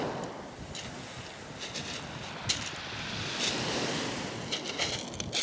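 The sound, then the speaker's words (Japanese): Gentle, relatively calm sea waves wash steadily onto a pebble shore rather than sand, a continuous soft roar with faint hissing surges and some wind from a strong breeze rumbling across the microphone, no voices present. “今日も海は比較的穏やかかな。”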